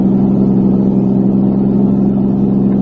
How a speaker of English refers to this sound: There's a car. It stopped.